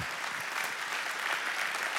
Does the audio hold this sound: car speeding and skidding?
no